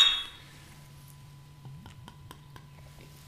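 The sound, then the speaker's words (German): Beer glasses clink together in a toast, a quick run of four or five light, bright taps, heard over a faint steady hum with no talking. “Und ich sage jetzt trotzdem mal Prost, Prost”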